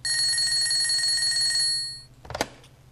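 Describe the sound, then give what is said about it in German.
A telephone bell rings loudly in one continuous metallic trill for about a second and a half, fades briefly, then a short clattering clunk follows. “Mit wem haben Sie da telefoniert?”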